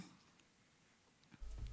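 After a near-silent stretch, papers on a desk rustle and shuffle in a short, crisp burst of crinkling and sliding, with a sharper scrape at the end. No one speaks.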